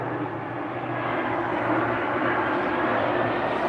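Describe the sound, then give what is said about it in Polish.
A low-flying airplane on its landing approach, passing along the landing path, roars steadily overhead, a loud, continuous engine drone with broad rushing noise that holds for several seconds without pause. “E, I nie wiem jak to będzie z dźwiękiem tutaj, bo jestem totalnie prawie na linii e, lądowania.”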